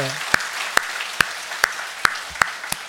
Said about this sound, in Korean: 오늘 이 일을 이루신 우리 하나님께 영광의 박수 한번.